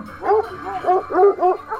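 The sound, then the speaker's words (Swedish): A dog barks in a quick run of about five or six sharp, yappy, loud barks, with no other sounds around them. “Jag aktiverar hunden eller?”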